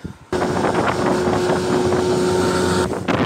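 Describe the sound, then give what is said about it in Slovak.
A boat motor drones steadily as a boat moves across the Zemplínska šírava lake, its even hum blending with rushing wind and water noise, continuous for a few seconds with no voices. “Vezeme sa na člne do Zemplínskej sa pozeráme na parkovisko jacht, aspoň to tak vyzerá, také člny, ako plachetnice, také menšie.”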